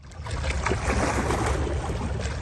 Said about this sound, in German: Die Wellen schlagen gegen die Schutzmauer.